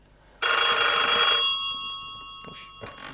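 A loud, bright telephone bell rings in one sustained burst, its metallic tone lingering and fading, followed by brief faint clatter and a short voice.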